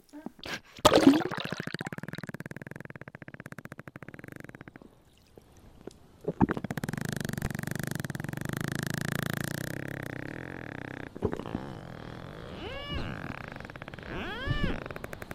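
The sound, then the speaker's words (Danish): Slowed-down porpoise echolocation clicks blur into a low, buzzing rattle, pausing briefly, then returning louder and denser with rising and falling whistly sweeps near the end, heard up close with no talking. “Det er en, et marsvin, der hapser en fisk.”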